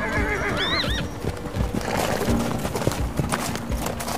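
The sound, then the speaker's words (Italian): Horses ridden by mounted soldiers keeping order before a land rush: one gives a shrill, wavering whinny near the start, while hooves clip-clop steadily throughout against a busy outdoor background with several animals moving about. “Di fronte a loro ci sono alcuni militari a cavallo che cercano di tenere l'ordine fino al colpo del cannone.”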